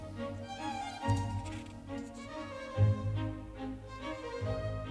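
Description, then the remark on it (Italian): A string section alone plays a steady, ticking rhythm of short, evenly spaced notes over sustained lower harmonies, with a few slightly stronger accents, at moderate volume and without voices, at the start of the development section of a classical piece. “sempre solo gli archi?”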